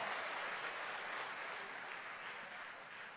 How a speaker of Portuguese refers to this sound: Aleluia, pode aplaudir.